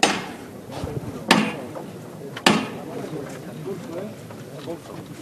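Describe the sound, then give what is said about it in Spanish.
Two sharp metallic knocks from the hammer (martillo) on a religious procession float at a church doorway ring out about a second apart, loud, signalling the bearers to lift the float, over a steady murmur of crowd voices and talk. “Va a sonar el martillo.”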